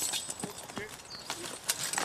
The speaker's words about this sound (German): Die Pferde arbeiten umweltfreundlich, zerstören keine Jungpflanzen und schonen vor allem den Boden.